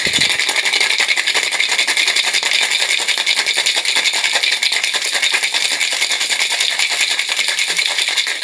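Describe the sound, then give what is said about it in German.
A cocktail shaker is shaken hard and steadily for several seconds, a loud, continuous rattling of ice against metal in a fast, even rhythm, with no talking. “Jetzt wird geshaked.”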